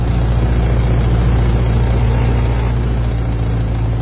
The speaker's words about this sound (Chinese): 直到一年之后的一九零九年，第二架飞机制造完成。九月二十一号，冯如坐在了驾驶员的座位上，启动了发动机。